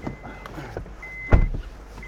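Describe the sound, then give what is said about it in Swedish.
A car pulling away, heard from inside as it sets off out to a pasture: a steady low engine rumble, a faint whine, and a sharp mechanical clunk partway through as the vehicle gets moving. “då sitter jag här i Carl Gustav Thulin, Kalle Thulins bil”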